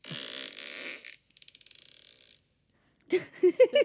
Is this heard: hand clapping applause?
no